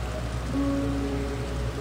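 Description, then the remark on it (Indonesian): Steady October rain patters on a hard surface in a dense, even wash of noise, with a faint low hum running underneath and no voices. “Tapi tahun ini, hujan mengadakan perhelatan besar-besaran di bulan Oktober.”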